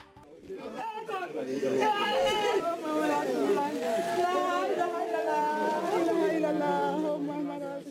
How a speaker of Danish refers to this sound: Det vi hører her er en sørgende landsby i Sierra Leone. Menneskene sørger, fordi en af landsbyens medlemmer, en ældre kvinde, er død. Hun er gået bort på grund af Ebola og kan derfor ikke blive begravet på traditionel vis i landsbyen.